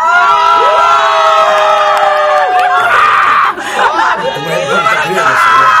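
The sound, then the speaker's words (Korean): An audience gathered outside the studio cheers and shouts loudly together when called on, a dense roar of many excited voices with high whoops and screams rising over it throughout, staying strong for the whole stretch. “예, 자 밖에 소리 질러!”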